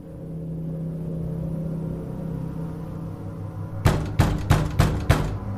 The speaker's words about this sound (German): Durch Hämmern an ihrer Wohnungstür wurde sie aus dem Halbschlaf gerissen.